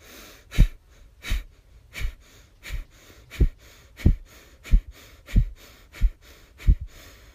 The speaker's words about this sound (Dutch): Een krachtige uitademing. Waarbij je meteen je navel intrekt richting je gaat. Begin dan deze in- en uitademing te versnellen. Het tempo wordt opgevoerd. Een snelle, krachtige, continue, maar gecontroleerde ademhaling.